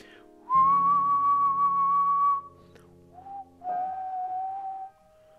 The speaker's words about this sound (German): Und zum Beispiel sind so Dinge wie Optional Whistle. Also optional kannst du pfeifen. Und dann pfeifst du das Thema.